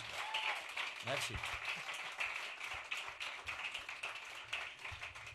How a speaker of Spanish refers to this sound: Fuerte aplauso, por favor, a estos dos pedazos de ah, músicos.